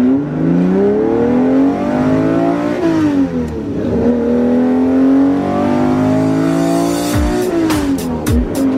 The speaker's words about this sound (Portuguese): Então, se algum dia você tiver interesse em comprar uma Ferrari 250 GTO, vai ser por esse motor que você vai estar tá pagando.